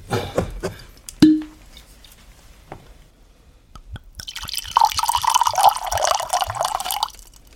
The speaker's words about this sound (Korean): 포도주도 준비했어? 만찬인데 당연히 포도주가 있어야지. 당신이 따라줘.